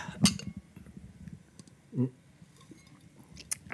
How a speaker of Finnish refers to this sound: Mutta koska jälleen kerran olemme autenttisessa ympäristössä, eli itä-helsinkiläisessä ollut ravintolassa – siellä siemailemassa Pale Alea. Niin Kyllä. Niin otetaan hörpyt tähän. Otetaan vähän. hörpyt, otetaan hörpyt pois alta.